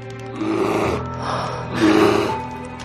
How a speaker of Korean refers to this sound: 등뒤 어딘가에서 아마도 뒤뜰에서 무엇인가 부스럭거리고 있었다. 곧이어 낮게 숨쉬는 소리가 울렸다.